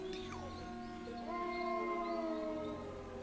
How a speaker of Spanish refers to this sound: El aullido se repitió y a lo lejos, a través de los campos, otro aullido le respondió.